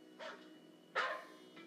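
A dog gives a few separate barks, one short, one louder and fuller, then a softer one trailing off. The barks sound fairly close, with no talking.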